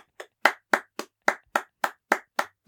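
A single person clapping hands steadily, about ten sharp, evenly spaced claps in quick succession with no voices over them.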